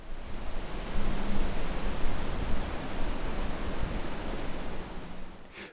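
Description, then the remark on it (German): A steady, dense rush of wind through European beech leaves, a broad soft roar with a strong low end and somewhat weaker high frequencies, holding evenly throughout, with no voices present. “Das Rauschen der Rotbuche hat einen kräftigen Bass und ist in den hohen Frequenzen etwas schwächer.”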